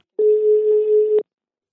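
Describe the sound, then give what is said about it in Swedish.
A single ringback tone from an outgoing phone call, a steady mid-pitched hum lasting about a second, clear and alone with no voices. “Men vi ringer och pratar med dem.”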